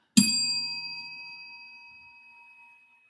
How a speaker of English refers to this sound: That was a perfectly timed bell, sir.